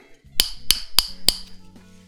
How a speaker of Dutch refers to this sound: Ja, ik kan niet echt het flesje eh, of ja, een glazen flesje samenknijpen. Dus ik ga er weer tegenaan tikken. Helemaal op krijg ik hem niet, maar neem nog een slok en dan eh, tik ik er lekker tegenaan.